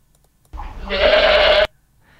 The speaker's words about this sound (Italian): Eh, sentiamo un altro verso, questo è la capra sola, la, mm. la capra che viene isolata in questo modo per qualche ragione. Esatto, magari per ragioni sanitarie, per un trattamento. Allora proviamo a sentire come fa.